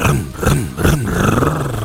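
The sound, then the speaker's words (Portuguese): A loud, rough motorcycle engine roar revving up and down in quick surges, its low growling pitch rising and falling three or four times before settling into a steady drone. “Como é que é o ronco, Clébio?”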